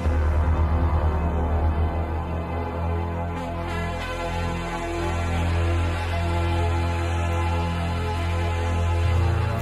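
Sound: rock concert recording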